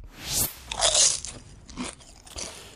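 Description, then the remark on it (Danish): Crisp crunching and chewing of popcorn, several loud bites and munches in an irregular rhythm with no talking. “Velkommen til, så er der fodbold og popcorn og chili banæs.”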